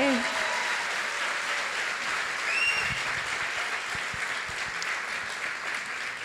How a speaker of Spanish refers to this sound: ¿Qué tal si lo recibimos con un aplauso fuerte?